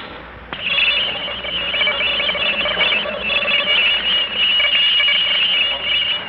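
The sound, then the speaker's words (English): A taped noise pattern from outer space: a steady, loud wash of shrill warbling electronic tones over hiss, kicking in after a brief quiet moment and droning on without pause, no voices. “I'm about to play a tape recording for you of the noise pattern that came from outer space”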